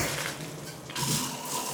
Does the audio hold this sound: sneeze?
no